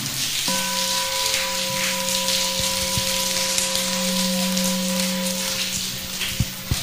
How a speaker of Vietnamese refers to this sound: các con có muốn được vậy không nếu muốn thì cho một tràng vỗ tay thật lớn để cam kết nào